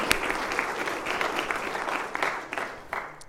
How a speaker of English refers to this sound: A round of applause, please, as they celebrated their wedding.